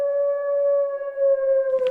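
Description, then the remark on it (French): A voice mimics a wolf howl, one long sustained steady tone with clear harmonics, held for about two seconds, fairly loud, with no talking. “Dans la cour, sous les arbres, là où on peut se cacher pour que les loups ne viennent pas nous trouver. On entend soudain Aouh”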